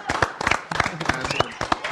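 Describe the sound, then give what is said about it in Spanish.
A burst of steady applause on a show for a music producer nominated for 12 Latin Grammys: many hands clapping in dense, overlapping claps at a moderate level, with a voice calling out "Bravo!" over the clapping partway through. “Bueno, pues aplausos. ¡Bravo! ¡Bravo!”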